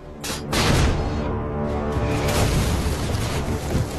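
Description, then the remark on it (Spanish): Heavy artillery fire, shot after shot with coordinates adjusted on the fly, aimed at a crowd of soldiers coming out of a dike, booms in a loud, continuous rumble, with several sharp blasts bursting out early and another near the middle, leaving no quiet gaps between them. “Oner indica disparo tras disparo, ajustando las coordenadas sobre la marcha. ¡Fuego!”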